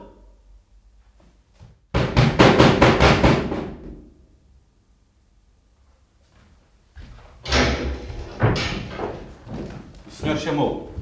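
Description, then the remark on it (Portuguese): A person tries to open a locked door that will not give, rattling it hard several times in quick succession, then after a pause shoving and jiggling it again with loud, clattering bursts. “Dirige-se então para a porta e tenta abri-la. A porta não cede.”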